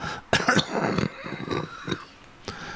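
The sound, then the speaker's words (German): A rasping bout of coughing: several harsh hacking bursts in quick succession, followed by a few weaker coughs spaced out over the next couple of seconds, with no talking. “Das ist der zweite, dritte Huster heute am Tag.”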